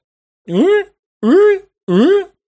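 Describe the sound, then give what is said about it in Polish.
A voice imitates a station alarm signalling a detected hull breach: three loud, evenly spaced wailing calls, each rising then falling in pitch, with short gaps between them. “alarm.”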